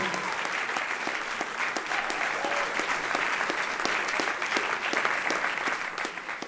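An audience claps steadily for several seconds to vote for an audience member's question, a dense wash of overlapping hand claps with a few sharper individual claps standing out, holding at a fairly even, moderate loudness throughout.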